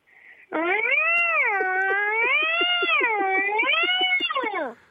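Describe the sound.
A girl imitates an irritated cat suddenly woken from sleep with one long, loud yowl that wavers up and down in pitch, with a rough, pulsing edge, held for about four seconds.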